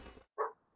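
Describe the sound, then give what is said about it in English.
A single sharp bark from the speaker's dog rings out after a brief moment of quiet, short and loud with a quick decay and no talking over it. “sorry about that my dog just went nuts”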